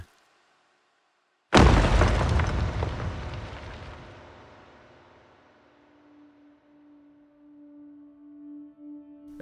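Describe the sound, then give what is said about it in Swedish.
A large boulder falls onto hard ground with a sudden, loud boom after a moment of silence, its deep rumble slowly fading over several seconds into a faint lingering hum. “stort stenblock föll ner i det hårda underlaget och gav ifrån sig ett högt dån.”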